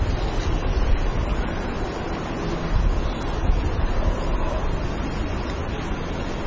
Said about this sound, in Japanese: ニューヨークのマンハッタンのセントラルパークに来ています。